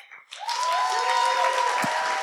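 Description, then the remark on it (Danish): A burst of audience applause for Jes Dorf swells in after a brief quiet start and holds steady as a dense, loud wash of clapping, with a faint tonal whistle or cheer threading through it. “Giv en stor hånd til Jes Dorf.”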